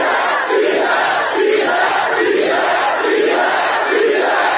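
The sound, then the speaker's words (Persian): A large protest crowd in the street in Abadan, Iran, on the eighth of the month, chants loudly in unison, voices swelling in a steady rhythmic pattern roughly every second, continuously. “ما که صدای این هموطنان باشه اینجا آبادان هشتم ماه هستش”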